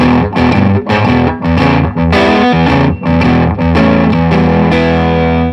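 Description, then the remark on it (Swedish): Fuzzy, distorted electric guitar tone through a gritty, buzzing amplifier, played as loud chords with a few brief dips between strums, with no voices. “Så får den den här lite känslan av en eh, lite fussig, pruttande stärkare ja.”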